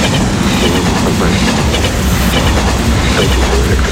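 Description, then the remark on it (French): A train thunders past at very close range, a loud, continuous roar of rumbling wheels and rattling cars with faint metallic squeals, filling the whole clip without any voices. “Un son d'abord lointain a commencé à grandir rapidement et s'est retrouvé devant mes oreilles.”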